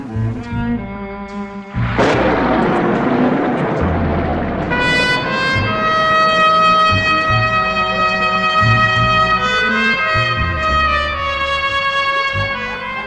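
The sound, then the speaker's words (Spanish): A sudden loud, close thunderclap crashes in at night and rumbles away, then a sustained, eerie, melancholy howl rises and holds over the steady roar of a violent downpour, with no one speaking. “Escucho un estruendo formado por la combinación de un aullido melancólico, un trueno cercano y la violenta tromba de la noche.”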